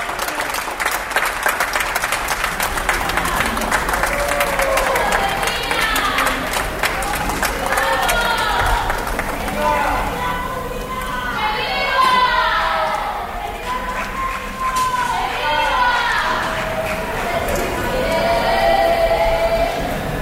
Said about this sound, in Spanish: los aplausos de las ocho, claro. El resistiré, los gritos a favor de la sanidad pública al fondo